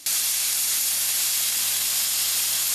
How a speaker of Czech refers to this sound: Přistávající letadlo zanechá na dráze zhruba 2,5 kg gumy, která pak snižuje brzdný účinek. Odstraňuje ji speciální stroj tlakem vody.